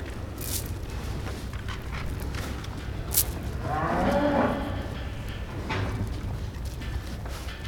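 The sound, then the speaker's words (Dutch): Cows munch on extra feed pellets amid a steady barn rustle, with a few sharp clicks, while one cow lets out a single drawn-out moo, swelling then fading. “Ze krijgen nog wat extra brokken. Ja, nou dat is gewoon om even te laten zien hoe, hoe lekker ze dit ook weer vinden.”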